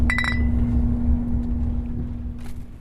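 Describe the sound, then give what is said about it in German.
A few quick, bright clinks of drinks tapped together in a toast at the start of a journey to Frankfurt, ringing briefly over a steady low engine hum and rumble, as if inside a moving vehicle. “So, jetzt erstmal gute Reise und äh, Prost, würde ich sagen, wa?”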